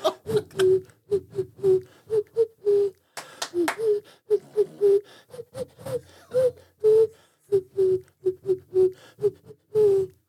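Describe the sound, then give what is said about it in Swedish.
A person whistles a lilting folk melody, a steady run of short, rhythmic notes rising and falling with brief pauses between phrases, with no other voices or sounds. “Men Lät det för mig, det där är ju bara en vissling, eller?”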